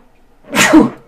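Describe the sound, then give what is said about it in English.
A single sharp sneeze bursts out, a quick breathy explosion that rises and fades within about half a second, with near silence before it. “Bless you. Gesundheit!”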